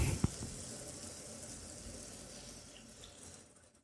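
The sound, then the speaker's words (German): A first splash of water is added to curry frying and roasting in a hot pan, setting off a steady, loud hiss and sizzle that gradually fades over a few seconds, with no voices. “So, ich glaube, jetzt ist der Zeitpunkt gut, das Wasser zuzugeben. Wie gesagt, erstmal so einen Schluck.”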